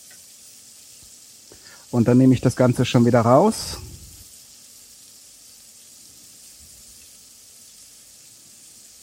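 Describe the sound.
Fish pieces sizzle steadily as they are seared briefly for a few seconds on each side in a hot pan, a constant high frying hiss that runs the whole time, with a man briefly speaking over it near the start.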